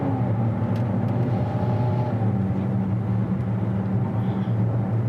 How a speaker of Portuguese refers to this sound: Muito boa mesmo o, o ronco dele não achei feio, não. Não. Por ser um 4 cilindros, óbvio.